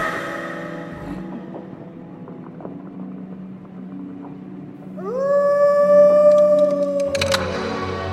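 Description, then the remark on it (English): Wolves howling: a long, loud howl swoops upward and then holds a steady, sustained pitch for a couple of seconds over a low, constant droning background. “Wolves! The wolves are here!”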